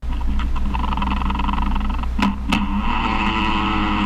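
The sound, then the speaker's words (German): A spider's courtship vibration, amplified into a continuous gritty, rumbling buzz with a steady low drone, broken by two sharp clicks near the middle. Loud, with no voices. “Ganz so lange Zeit haben wir jetzt vielleicht nicht, aber wir haben einen Ton, damit man sich mal anhören kann, wie das klingt bei der Spinne.”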